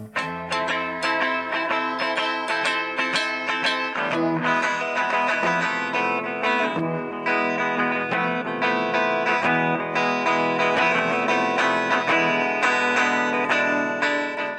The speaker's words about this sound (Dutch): een Spaanse wals in gedachten. En dan inclusief castagnetten en een echte flamengo touch. Zijn eerste brug die klonk ongeveer zo.